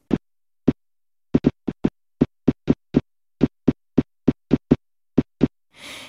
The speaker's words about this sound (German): Es zeigte sich, jede Art von Augenbewegung erzeugt jeweils eigene typische Geräusche, die im Ohr zu hören sind.